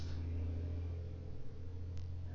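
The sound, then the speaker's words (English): A car passes outside, heard as a steady low engine rumble that fills the whole moment and shifts slightly midway, with no voices present. “And as you heard just now, a car going by.”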